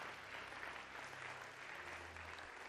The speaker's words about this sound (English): Give Jesus a mighty clap of praise.